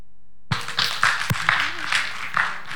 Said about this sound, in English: Amen. Give the Lord a hand clap this morning, if you would.